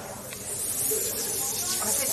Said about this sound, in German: Ja, jetzt könnt ihr hören, genau wie der Teig auf, den, auf das Waffeleisen gefüllt wird. Und in diesem Teig ist Kürbis drin, wenn ich das richtig verstanden habe.